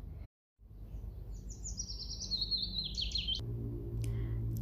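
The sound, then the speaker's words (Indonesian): A small bird chirps and tweets in a quick run of bright, high notes that rise and fall, over a low steady rumble of background noise. “Cicit seekor burung yang lincah.”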